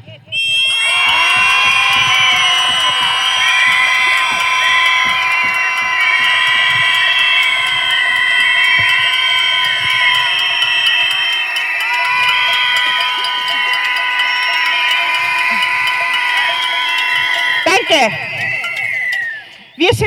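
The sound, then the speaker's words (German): A crowd screams together in protest over victims of femicide, many high overlapping voices forming a loud, sustained roar that holds for nearly twenty seconds before breaking off abruptly. “Das ist zum Schreien. Jetzt.”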